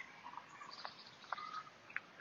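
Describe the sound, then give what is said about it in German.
Faint bird chirps: a few short, high tweets scattered over a couple of seconds against a quiet outdoor hush, with no voices. “Hör ich die Vögel zwitschern?”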